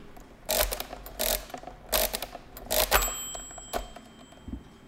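A mechanical calculating machine being cranked to perform successive subtractions: a series of loud, rhythmic clattering bursts of ratcheting gears, about five turns, ending with a bright bell ring and a final clunk, with no one talking.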